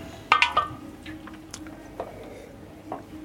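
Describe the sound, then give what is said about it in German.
A few quick, wet slurping sips of doppelbock beer near the start, followed by quieter swallowing and small mouth sounds, otherwise hushed. “Ich nehme noch mal einen Schluck.”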